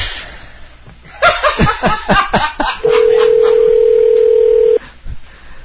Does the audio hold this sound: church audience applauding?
no